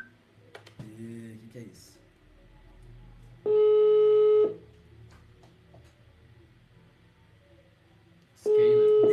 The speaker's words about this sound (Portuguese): tamo te ligando, irmão.